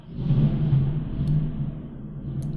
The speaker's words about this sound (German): Das ah. war Gewitter. Wow, verrückt. Passt zur Stimmung.